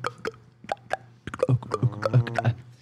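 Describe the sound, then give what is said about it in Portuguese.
A beatboxer makes a series of sharp, hollow mouth clops used as the snare sound of the beat, a few spaced clicks at first, then quicker ones layered over a steady hummed vocal tone, fairly loud. “Tipo, não que seja só eu que faço esse beat, mas, tipo, as pessoas geralmente quando olham para mim falando, então, caixa, é o clopzinho.”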